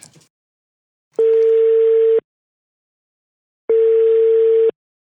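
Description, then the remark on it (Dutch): A steady telephone ringback tone sounds twice as a phone call is placed, each buzzing beep lasting about a second with a long silent pause between, loud and clear with no talking over it. “Zullen we even bellen?”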